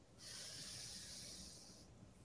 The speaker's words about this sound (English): Take a moment to gently close your eyes and join me in three deep breaths. Take a big inhale through your nose. Inhale.